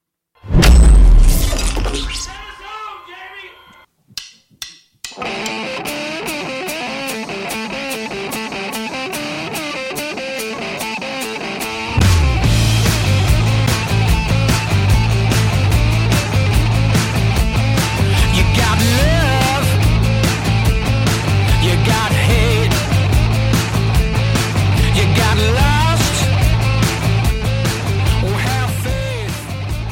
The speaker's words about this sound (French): Et pour fêter leurs 25 ans de carrière, le groupe a euh, donc euh, de commencé par un premier titre qui met bien en évidence l'influence rock du groupe, celle qui vient des racines, construit sur un riff répétitif, mais sur une courte durée.